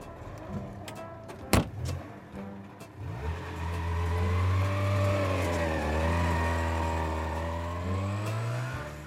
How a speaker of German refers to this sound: Motor läuft. Wie gesagt, das ist ein Zweitaktermotor und los kann's gehen.